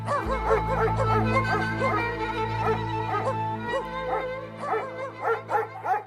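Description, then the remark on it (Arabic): Several dogs bark and yelp in quick, overlapping bursts throughout, fairly loud, with a steady low hum running underneath; the dogs are searching the streets of Amman. “جبت كلاب شممتهم أوعية ووزعتهم في شوارع عمان يدوروا عليه”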